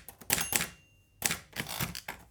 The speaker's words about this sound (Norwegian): her er lyden av skrivemaskinen min. Ja, en av dem jeg har. Den eldste, faktisk.